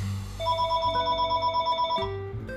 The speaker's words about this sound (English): Yeah, and of course the phone is gonna ring when I'm here, and uh, I'll hang up and uh, I'll call them back later.